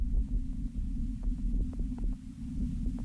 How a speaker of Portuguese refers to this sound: É isto. Não passa nada. É vento, parece, há vento, não é? É. Parece, parece aqueles filmes do, do Faroeste, em que passa depois aquele rolo de, de poeira.